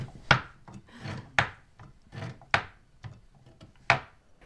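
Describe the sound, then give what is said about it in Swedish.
A spinning wheel spinning yarn, with two threads spun together into two-ply yarn: sharp wooden knocks recur about once a second, with soft rasping, rubbing whirs between them. No one speaks. “Ja, och så spinner man ju liksom, man spinner två, två olika trådar. Sen spinner man ihop dem okay.”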